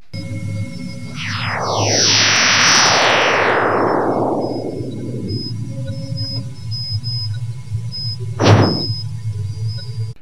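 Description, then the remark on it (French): Eerie layered tones sweep steadily downward in pitch over several seconds over a low constant hum, then a lone sharp bang rings out near the end of a sonified solar radio burst, recorded during a small eruption on the Sun and converted into sound afterward for illustration. “ce premier son, un sursaut solaire, euh, avec euh, différents petits sons. Hein. On a un grand bang.”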